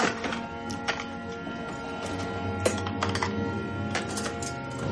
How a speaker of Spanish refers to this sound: Coge platos de un mueble y cubiertos.